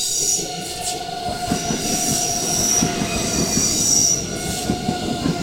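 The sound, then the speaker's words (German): A five-car Intercity train from Gera, number 2156, rolls steadily out of a curve, its wheels squealing in high sustained tones over a dense rumbling clatter, loud throughout with no talking. “Das ist so ein 5-Wagen-Intercity.”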